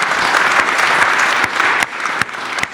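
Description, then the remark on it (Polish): An audience at a meeting claps steadily for the magazine Pismo, represented by its publisher, a dense wash of many hands sustained at a fairly loud level, thinning slightly toward the end with a few sharper individual claps standing out. “Drodzy Państwo, i to jest moment na brawa dla pisma”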